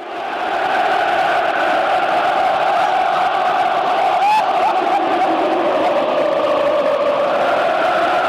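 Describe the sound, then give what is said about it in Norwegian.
A loud stadium crowd roars continuously at a football kickoff, a dense, sustained wall of voices with a brief sharp whistle-like rise in the middle. “Det her dette er, her er når avspark tas.”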